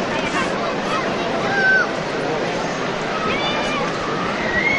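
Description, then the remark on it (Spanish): Steady crowd bustle at a street procession in the Plaza de la Constitución, where the procession float (paso) is stopped: a dense wash of many overlapping voices at constant loudness, with a few brief high-pitched tones cutting through. “Si escuchamos el bullicio de fondo, eso es que el, el paso por lo menos está, está parado.”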